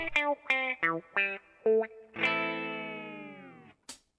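A heavily processed, distorted musical intro: five short, choppy bursts of harmonically rich tones, then a long sustained chord that slowly fades, followed by a brief bright hit.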